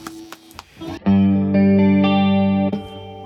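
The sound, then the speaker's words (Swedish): A sustained electric guitar chord rings out through a single pedal combining chorus, vibrato and flanger effects, its speed, depth, tone and control knobs set at 12 o'clock, its tone gently wavering, after a brief burst of quieter picked notes; loud, no talking. “vibratos och flangers i en pedal. Vi kan ja, ju faktiskt spela igenom de här snabbt bara.”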